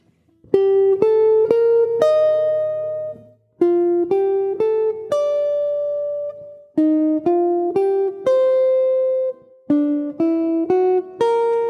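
A simple jazz melody picked out on piano as read from a real book, in short phrases of evenly spaced notes, played stiffly and straight with no swing or expression. Clear, with no voices.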